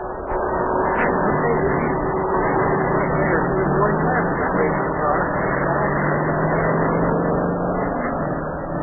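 A racing car engine runs continuously on a race track, a loud, steady droning roar whose pitch slowly climbs as it revs. It keeps going for the whole stretch with no pauses.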